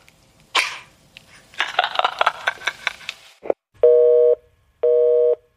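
A short burst of noisy sounds, like a thump and rustling, is followed by two steady electronic busy-signal tones as a telephone call is cut off, each tone lasting about half a second with a pause between them, loud and evenly pitched.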